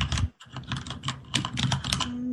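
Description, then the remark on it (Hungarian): Rapid clacking of mechanical keyboard keys, a dense run of sharp key strikes with a brief pause near the start, no voices present. “Akkor én nem gépeltek, a mechanikus keyboard nem podcast kompatibilis.”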